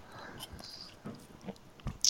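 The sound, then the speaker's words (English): Quiet mouth sounds of someone taking the first sips of a banana-flavored iced coffee with a shot of mocha, with small wet clicks and swallows, ending in a brief louder slurp through a straw with a faint rattle of ice. “I just took the first sip of coffee, uh, so I got a Great.”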